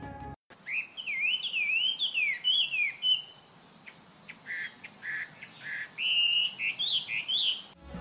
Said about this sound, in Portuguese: Já em algumas casas, uma espécie muito popular por causa do seu canto é o zaragateio da China, ou Huamei, que quer dizer sobrancelha pintada, exatamente porque ele tem um anel branco em torno do olho. Seu canto é forte, claro e variado. Vamos ouvir.